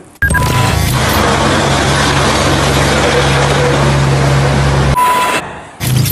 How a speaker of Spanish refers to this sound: El camión que lanza agua de los antidisturbios, por ejemplo, eso no es ecosostenible. ¿eh? ¿Tú sabes el agua que derrocha eso? Que cada manifestación son esos tres piscinas de Orcera como mínimo.